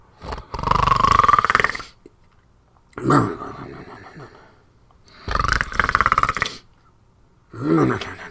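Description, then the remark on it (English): A person imitates a bear snoring with four slow, loud, rasping breaths, each a rough growling snore separated by short pauses of quiet. “When the boy heard the bear snoring, he wiggled out of the fish skin”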